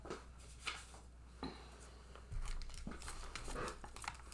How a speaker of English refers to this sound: And so I actually have let me get it. I'm gonna crinkle here a minute.